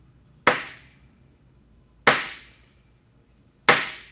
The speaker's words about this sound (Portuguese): O vovô de Joãozinho estava construindo um caminhão de madeira. Joãozinho ficou tão feliz, mas tão feliz, que resolveu ajudar. Ele martelou.